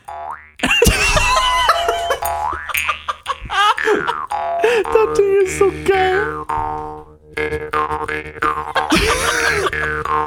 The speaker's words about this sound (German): Und eine Sache noch aus meiner, aus meiner Hosentaschen-Musikkiste, die Maultrommel.